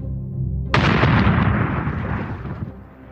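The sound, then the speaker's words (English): A low droning rumble of British-made bombers, sent by General Pinochet against the presidential palace in Santiago, Chile, on September 11, 1973, gives way to a sudden, loud explosion whose roaring, crackling blast lingers and slowly fades over a couple of seconds. No one speaks. “In Santiago, General Pinochet, America's man, sent in his British made bombers against the presidential palace.”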